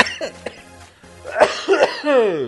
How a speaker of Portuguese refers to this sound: eu tossindo de novo aqui, velho.